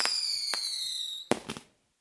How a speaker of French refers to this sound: Mais les Chinois sont les seuls à avoir eu l'idée de tirer des roquettes dans le ciel pour disperser les nuages de pluie avant les Jeux olympiques de Pékin 2008, pour garantir que la météo serait au beau fixe.